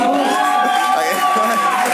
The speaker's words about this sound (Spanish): y la gente lo aplaude. La gente aplaude Nakatomi Radio. Van a hablar de no sé qué, pero van a hablar algo. Yo pensaba que nos aplaudían a nosotros.